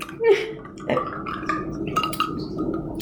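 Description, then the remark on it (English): A wet slurp as someone sips a wine that smells like a Moscato, followed by a gulping swallow and a few faint glassy clinks. No one speaks. “I'm, I'm just gonna take a little sip.”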